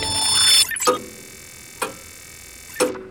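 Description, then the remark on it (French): A clock ticks slowly and distinctly, with three sharp, evenly spaced ticks about a second apart following a brief brighter whoosh at the start, clear with no voices. “Remontons les aiguilles de l'horloge pour découvrir l'histoire de ce site.”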